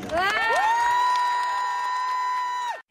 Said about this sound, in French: Et la clameur s'élève dans la foule tandis que les drapeaux corses s'agitent sur la place Saint-Pierre où se déroule le consistoire.